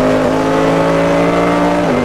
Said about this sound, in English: Engine note for Dominic Bauman, hard at it again.